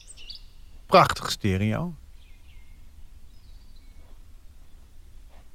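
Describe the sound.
Faint birds chirp in short high bursts at sunrise on the Veluwe in the Netherlands, clearest at the very start and then scattered and sparse, while a man briefly speaks over a soft outdoor background.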